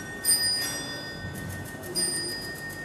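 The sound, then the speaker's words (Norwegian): The astronomical clock from Strasbourg, made in 1589 and about one metre tall, chimes one of Martin Luther's hymns, its bells ringing with sustained tones that hang in the air, heard fairly faint, with no one speaking. “Mens vi står og beundrer Martin Luthers signerte bibeloversettelse fra 1542, begynner den astronomiske klokken fra Strasbourg å slå.”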